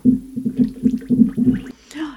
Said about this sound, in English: I don't know what to expect, but I'm going to mix this drink in the only way that I know how, and that is to blow bubbles into it.